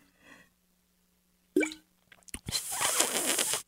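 A wet plop and a few small liquid clicks, followed by a loud, airy slurp that lasts about a second, like someone noisily sipping a drink, mimicking someone drinking coffee though the drink is not coffee.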